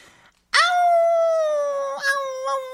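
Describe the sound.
A person on a radio show imitates a cute, high-pitched wolf howl: one loud, sustained, slightly falling wail with a brief wavering lift near the end, alone after a moment of quiet. It sounds a bit like a puppy, such as a Maltese.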